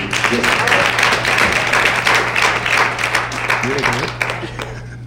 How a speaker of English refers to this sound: Clap your hands like you believe what you